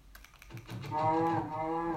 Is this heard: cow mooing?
yes